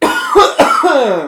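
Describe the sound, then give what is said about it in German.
A loud fit of coughing, several harsh bursts in quick succession with a raspy, choking quality, from a man who has swallowed wrong. “verschluckt sich, ne?”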